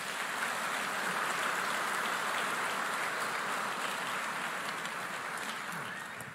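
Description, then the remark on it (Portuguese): A church audience applauds the Lord after a prayer: a dense wash of many hands clapping at once, fairly loud and sustained before tapering slightly at the end. No voices are heard over it. “Aplauda o Senhor mais uma vez.”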